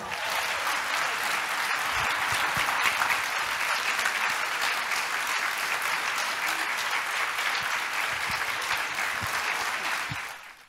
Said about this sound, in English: There was a standing ovation.